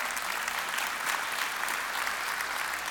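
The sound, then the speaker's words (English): A church audience applauds steadily during a service, a dense wash of many hands clapping at once with no pauses or voices breaking through, holding an even loudness across the whole stretch. “Yep, you can clap at that.”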